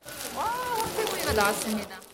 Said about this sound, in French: Il est servi sur une plaque de pierre chaude brûlante. Le délicieux grésillement lui met l'eau à la bouche.